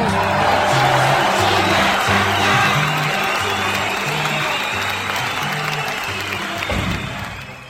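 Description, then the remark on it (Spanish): A crowd applauds steadily to welcome a guest who has just connected, a dense wash of clapping mixed with some cheering, staying loud throughout before tapering slightly at the end, with a low rhythmic pulse running underneath. “¡Aplausos!”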